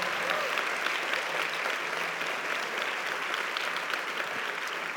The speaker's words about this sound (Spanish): Vamos a darle un, aplauso más fuerte al Señor el día de hoy.